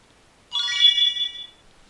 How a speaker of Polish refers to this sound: Pojemność baterii wysoka. Dyktafon e, zabrzęczał takim specyficznym e, dźwiękiem i powiedział nam, że pojemność baterii jest wysoka.